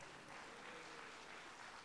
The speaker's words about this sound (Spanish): ¡Déjenme un fuerte aplauso, por favor.